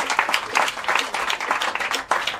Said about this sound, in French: Et on peut l'applaudir, même s'il n'est pas là, il m'entendra.